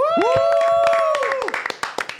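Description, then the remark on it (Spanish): Audience applause welcoming guest Alejandro Carpio, an author, actor and professor, of many quick, sharp claps, first under a loud sustained musical tone that bends and fades, then continuing alone as scattered, uneven clapping. “Un fuerte aplauso para Alejandro Carpio.”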